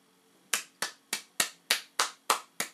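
Eight sharp hand claps in a steady, even rhythm, each one crisp and bright with a quick decay, sounding like a single person clapping slowly without any voices.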